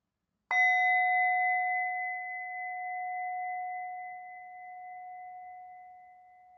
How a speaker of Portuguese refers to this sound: E quando se sentir pronta, quando se sentir pronto, ao soar do sino, você pode abrir os olhos ou simplesmente encerrar essa prática.